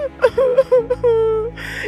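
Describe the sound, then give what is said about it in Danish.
A voice performs the whimpering, sobbing cries of Theo Tordenskrald, a mountain-folk character in a Danish children's story, who sits crying on a tree trunk after being frightened by a thunder sound: wavering high-pitched wails broken by short catching breaths, fairly loud, ending in a breathy gasp. “Og nu kan jeg slet ikke stoppe med at græde, svarede Theo Tordenskrald”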